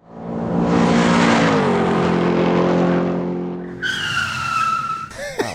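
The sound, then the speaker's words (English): A car engine revs hard with a broad roar, then sharp high tire screeches cut in as it brakes, loud, with a brief squealing burst at the end, in a repeated combination of gas and brakes. “First one is a combination of gas brakes, gas brakes, gas brakes.”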